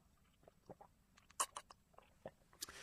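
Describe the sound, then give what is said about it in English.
Someone takes a little slurp of water in the morning, with a quick series of short, wet sips and clicks that come unevenly, a couple of them sharper. There is no talking, and the background is hushed. “A little slurp of water this morning.”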